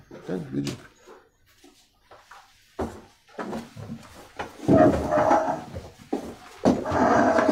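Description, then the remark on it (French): Chairs scrape and knock as they are shifted into place, a series of irregular wooden bumps and drags, with people murmuring in the background. “Prends ta chaise, mets là. Comme ça, vous pouvez tous rentrer.”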